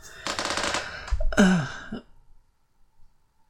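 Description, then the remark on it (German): A bed creaks as someone lies down on it: a rapid, rattling run of creaks followed by a longer, drawn-out squeak that bends downward in pitch, then quiet. “Natürlich hört man, mein Bett knarzt, wenn ich hier drauf liege, aber was soll's.”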